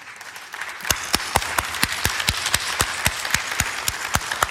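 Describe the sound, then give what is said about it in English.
Applause during a church sermon, with the speaker himself applauding: one set of sharp, steady hand claps, roughly four per second, standing out over a softer wash of background clapping. Nobody speaks. “I'm, I'm applauding for the rest of you that don't applaud.”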